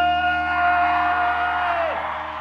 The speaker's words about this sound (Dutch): mag ik een gigantisch applaus